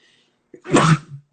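A single loud sneeze bursts out after a brief sharp intake of breath, trailing off quickly into quiet with no talking over it.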